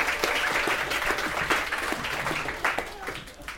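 round of applause

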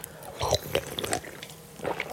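sipping a drink

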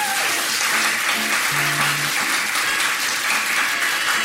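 audience round of applause

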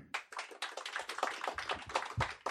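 audience applause

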